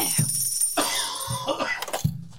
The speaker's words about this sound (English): As sure as shit for the last three months and now six days, I've been coughing.